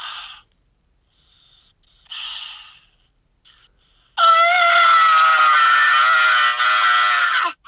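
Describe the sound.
A person imitates a screech with their voice: a few short breathy sounds, then a loud, sustained, shrill screeching cry lasting about three seconds, forceful.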